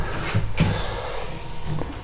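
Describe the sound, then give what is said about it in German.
A dog eating, with snuffling, snorting breaths and soft wet chewing noises in a few short bursts against a steady low background hum. Nobody speaks. “dass er noch ein bisschen frisst.”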